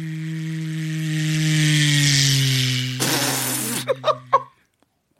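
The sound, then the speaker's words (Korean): Comedian Ok Dong-ja imitates an ordinary car engine with his voice, a steady, buzzing lip-and-throat drone, then a rough, noisy rev and a few sputtering pops before it cuts off. Fairly loud, with no talking. “자동차 어떤 거? 소리 자동차 일반 자동차 일반 자동차 예.”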